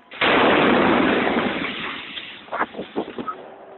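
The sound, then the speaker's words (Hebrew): A sudden loud explosion, representing a suicide bomber blowing himself up at an ice cream stand in Baghdad where dozens of football fans were celebrating, bursts in with a sharp onset, followed by a long rumbling roar that slowly fades, then a few scattered cracks and pops near the end. “מחבל מתאבד התקרב לדוכן גלידה, בו חגגו כמה עשרות אוהדים, ופוצץ את עצמו.”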